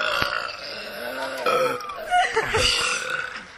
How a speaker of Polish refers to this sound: Takim bekaniem.